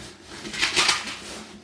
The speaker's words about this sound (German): da raschelt er in seinem Rucksack.